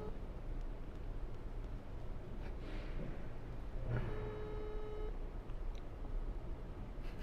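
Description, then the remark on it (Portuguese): A single ringback tone from a phone call on speakerphone, one steady electronic ring lasting about a second against a constant rumbling background noise. “Vamos ligar pra ele. Vamos ver se ele atende.”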